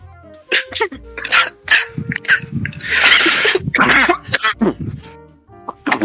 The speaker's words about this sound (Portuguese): Não foi nem engraçada, só porque eu tossi mesmo. Não, não foi humor, foi doença.